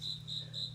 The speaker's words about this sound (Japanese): この虫の声。秋っぽい、鈴虫の声が聞こえますね。